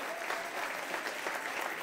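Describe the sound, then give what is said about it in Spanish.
A church audience applauds God during a sermon with steady, dense clapping that stays fairly even throughout, a continuous patter of many hands without a clear beat and no voices standing out. “Dios, denle un aplauso al dueño.”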